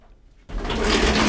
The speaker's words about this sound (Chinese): 呃呃，这个是佑可老婆的开关门声音。